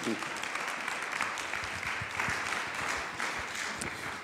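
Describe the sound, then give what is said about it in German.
A crowd claps steadily for several seconds, a dense, even wash of many hands with a few sharper individual claps standing out, at a moderate level, applauding a woman introduced to preach that morning. “Äh, sie wird heute Morgen predigen und geben wir ihr einen fetten Applaus.”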